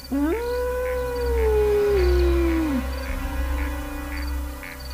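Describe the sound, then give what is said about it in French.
A single long wolf howl rises quickly, holds a steady mournful pitch for a couple of seconds, then slides down and fades, over a low continuous rumble with no voices. “Il caressa les pépelages du loup qui s'était assis à ses pieds”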